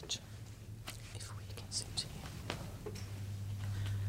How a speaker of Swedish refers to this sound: Jag kollar igenom fusklappen med frågor om jag skulle få hjärnsläpp och hör plötsligt mig själv gå och viska formuleringar på engelska där i ensamheten.